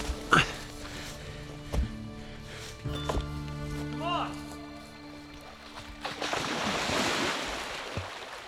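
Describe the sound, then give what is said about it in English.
Waves lap and wash at the shoreline in a steady rush that swells into a fuller surge near the end, with a few brief voice sounds over the water. “Okay, yeah, this water looks cold. All right, here goes.”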